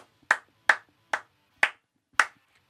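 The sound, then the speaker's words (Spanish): Five sharp hand claps at a steady, slightly uneven pace, each a crisp bright smack that stops quickly, with quiet gaps between and no voices. “Yo aplaudo eso.”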